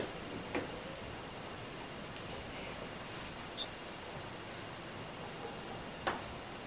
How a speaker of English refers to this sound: Okay. That was different. It almost to me sounds like somebody's like flicking a piece of paper.